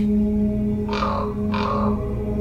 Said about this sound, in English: common raven is a massive, cunning, all black corvid with a huge bill and a shaggy neck.